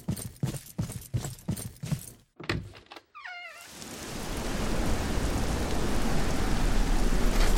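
A run of rhythmic thuds and brief chirping tones gives way to a loud, steady roar of hurricane wind and driving rain raging outside that builds and holds to the end, with no voices.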